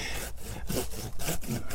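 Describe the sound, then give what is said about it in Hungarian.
A hand saw cuts off a larger tree branch in steady back-and-forth strokes, each stroke a rough, rasping scrape repeating roughly every third of a second, fairly loud with no talking. “Én úgy szoktam csinálni, hogy először föntről vágom, és akkor itt alulról vágok egy kis részt, hogy ha levágom, akkor ne repedjen”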